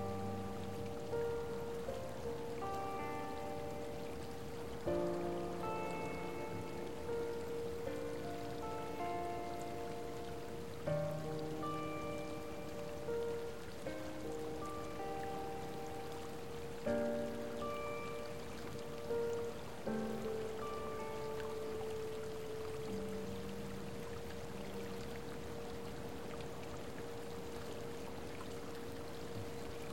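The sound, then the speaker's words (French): Steady, continuous flowing water from a hot spring with mist rising from it, a soft hissing trickle that never pauses, layered under gentle sustained musical tones and chimes; no one speaks. “Leur lumière joue avec la brume qui s'élève de la source d'eau chaude et avec les sommets enneigés au loin.”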